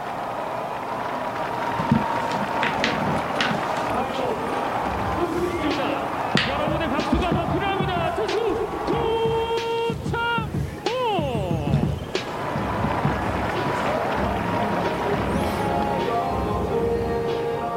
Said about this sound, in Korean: 그 저 때 선수가 등장할 때그 캐스터 해설자분 이야기 때문에 관중 소리가 살짝 안 들렸더라고요. 음. 근데 저때 어마어마한 함성이 터져서 한번 어, 같이 들어보면 어떨까라는 생각이 들어서 다시 한번 소개해드렸고요.